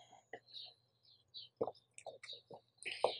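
Someone drinks water, with a quiet series of short wet gulps and swallows spaced irregularly, plus faint breathy mouth noises in between. Nobody speaks.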